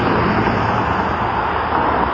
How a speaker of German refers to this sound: Ja, ich höre jetzt, es hat relativ viel Verkehr noch da. Es sind auch viele Leute unterwegs.